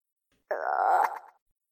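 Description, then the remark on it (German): A single drawn-out, throaty croak made by a human voice imitating a frog, close and fairly loud, lasting under a second before trailing off into silence. “Und der Frosch quakt einmal, aber nur das Geräusch.”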